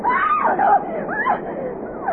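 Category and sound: human body sound, young woman screaming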